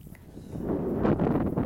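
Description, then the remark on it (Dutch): Wind buffets the microphone in a steady low rumble that swells and gusts louder over the second half, muffled, with no clear voices. “het waait nogal hier, dus ik probeer even een uh, eh, luwe plek te zoeken.”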